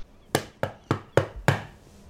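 Five firm knocks on a wooden door of a building, in a steady rhythm with the last two slightly closer together, each a sharp thud that quickly fades.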